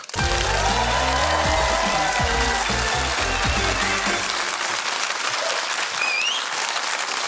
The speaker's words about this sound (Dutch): Geef hem een applaus dat ze tot op Mars kunnen horen. Hier is Thomas Hertog.